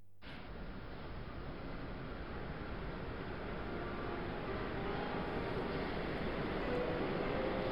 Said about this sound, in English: There's your train. Yes. I'll come over to the platform with you.